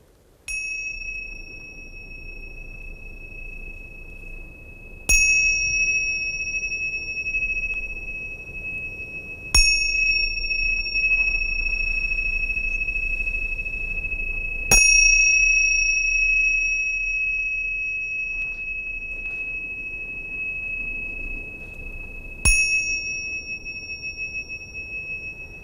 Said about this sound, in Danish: Men, man, men så vidt jeg husker i min, fra min læsning, så siger man, at de der særlige tibetanske klokker, de øh, blev brugt i ceremonier